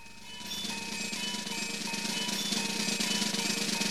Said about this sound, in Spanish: yo me callo y vamos a escuchar a …